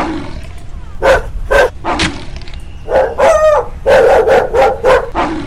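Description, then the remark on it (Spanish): A dog barks and snarls aggressively in a rapid series of loud bursts, growling between barks as it attacks someone. “No sé de dónde has sacado este perro, pero me lo, me lo pagarás caro.”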